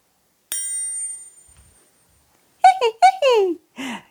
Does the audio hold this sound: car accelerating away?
no